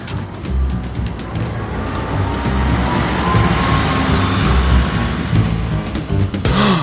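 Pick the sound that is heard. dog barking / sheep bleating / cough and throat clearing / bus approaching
bus approaching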